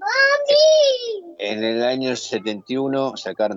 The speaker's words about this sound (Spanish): Están mis nietos a los gritos, así que si escuchan algún grito de fondo, este, por ahí.